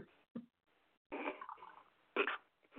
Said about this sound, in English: Pour it into a glass here. It's kind of a pink. It looks pink. It is pink.